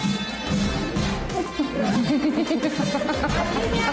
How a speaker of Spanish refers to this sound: ¿Qué tal este gato? Ahí lo escucharon, ¿eh? Claramente dice, no mames.